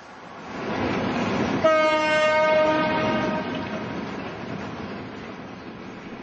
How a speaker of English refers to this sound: Coal trains still ply the tracks between the coast and Lyttelton, but you can't tell how full they are.